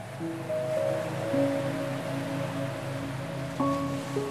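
A steady, continuous wash of sea surf rolls on at moderate level, with soft sustained musical tones humming over it and no voices.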